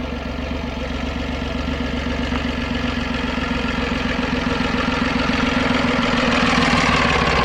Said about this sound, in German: oh, es kommt ein Trecker. Ein schöner alter Trecker. Sehr schön. Den warten wir mal eben ab. Ist ja auch ein cooles Geräusch, ne? Ducke, ducke, ducke, ducke, ducke, ducke, ducke.